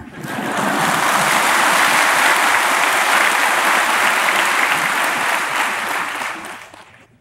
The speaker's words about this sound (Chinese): 你的鼓掌声音不不够响。